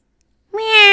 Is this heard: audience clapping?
no